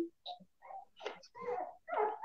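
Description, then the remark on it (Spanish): A small dog whimpers in a series of short, whiny, high-pitched cries with brief pauses between them, moderately loud, growing more insistent toward the end. “Levántalo, dale comida, perro. ¿Compraste ese perrito?”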